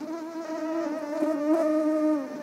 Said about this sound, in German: Mehrere Käfige nebeneinander, umhüllt von Gasenetzen, zusammen so groß wie ein Klassenzimmer. Darin surren tausende Mücken.